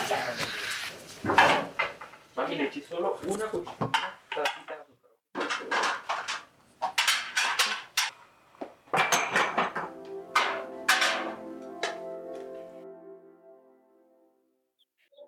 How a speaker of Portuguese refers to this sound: Peraí, que eu acho que eu tenho que arrumar a louça.